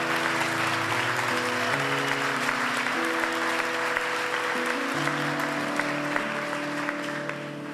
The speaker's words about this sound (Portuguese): Aplauda o Senhor! Aplauda o Senhor!